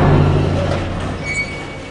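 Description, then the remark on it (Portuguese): A heavy modern metal door opens with a loud, steady low rumble and grinding scrape, a thin high squeal briefly cutting through near the end. No one speaks. “Depois de alguns minutos, vocês chegam a uma porta de metal moderna, assim, pesada.”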